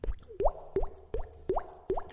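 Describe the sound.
A voice imitates water drops with five evenly spaced, hollow mouth plops, each a quick upward-bending bloop. Clear, with no talking.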